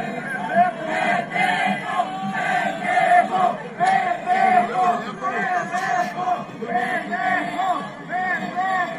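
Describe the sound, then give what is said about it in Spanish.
A large stadium crowd yells and jeers at a fan who fell into a ditch of water while trying to jump the barriers onto the field, a dense, continuous roar of many voices with rising and falling shouts, loud and sustained throughout. “Y todavía le gritan,”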